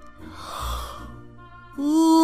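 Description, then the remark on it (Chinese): A voice imitates a yawn of a school principal slipping one foot into pajamas: a long, breathy inhale that swells and fades, followed by a loud, drawn-out voiced 'aah' that rises in pitch at the end. “他把一只脚套进去，打了个哈欠”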